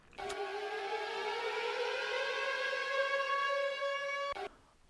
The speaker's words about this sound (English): Unfortunately, those sirens mean that we are done with pro news, so we're going to transition like a triathlon event over into the tech world.